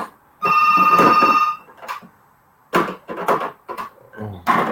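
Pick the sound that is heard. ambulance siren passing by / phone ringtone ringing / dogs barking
phone ringtone ringing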